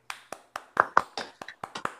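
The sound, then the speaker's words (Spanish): A short burst of applause from just a few people, with about a dozen crisp, separate claps in a quick, slightly uneven rhythm, moderately loud, with no talking. “Aplausos por este podcast.”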